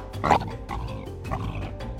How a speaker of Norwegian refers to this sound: I deres hjemland så blir de som blir tatt for krypskyting, satt i en fengselscelle sammen med en løve. Det er riktig. En levende, pustende løve.